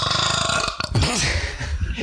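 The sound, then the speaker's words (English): A cat lets out one loud burp, a throaty, rumbling eructation that lasts about two seconds with a brief wobbling rise in pitch partway through. No one is speaking. “Your cat, cat just burped.”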